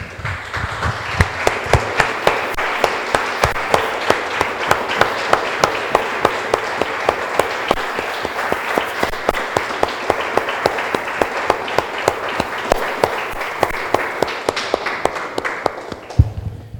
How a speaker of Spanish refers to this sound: Damos un aplauso, hermanos, al Señor.